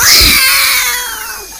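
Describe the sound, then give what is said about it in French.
A loud cat caterwauls in one long, strained yowl that starts harsh and high, then wavers and slowly fades, heard alone with no talking. “C'est à la fin de mon roulé-boulé que je me suis retrouvé nez à nez avec votre chat.”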